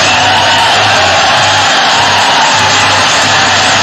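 A dense, steady wash of crowd noise with clapping and cheering that stays loud and continuous throughout, with no clear pauses or individual voices standing out.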